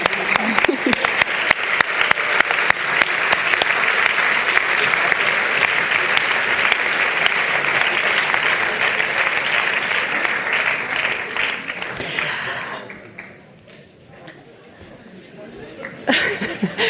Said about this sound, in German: Bitte Applaus. Genau.